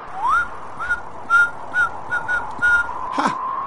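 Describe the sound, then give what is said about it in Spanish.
A person whistles a bright, cheerful tune: an upward swoop, then a string of short, bouncy notes in a steady rhythm. No one speaks, and a brief rustle comes at the end. “Cuando tu vida esté en ruinas, no gruñas, no refunfuñes, da un silbido.”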